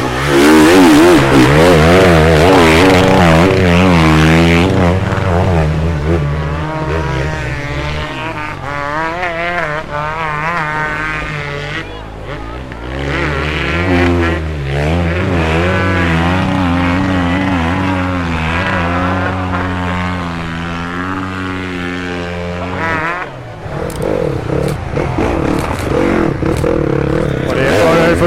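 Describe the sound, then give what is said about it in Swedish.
Three motorcycles rev hard and loud through the peat bog known as Gugges myr, their pitch rising and falling in overlapping waves as they plough through wet mud and throw it toward spectators, with a constant roar that barely lets up. “Tre som kör igenom här. Gasar på friskt här. Flyttar myren ut i publiken.”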